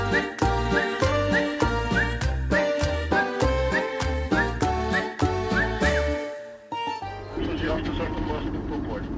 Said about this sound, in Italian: radio della corriera cerca una frequenza, mentre scende le montagne del Montenegro, che come onde si infrangono sulla pianura del Kosovo.